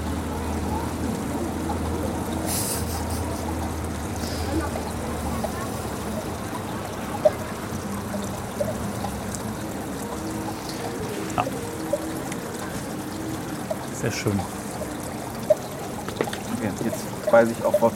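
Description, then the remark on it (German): A steady gurgling, trickling water effect played over loudspeakers runs without a break, with a low hum beneath it and a few sharp clicks toward the end. “Die machen dieses Gluck-Gluck-Geräusch.”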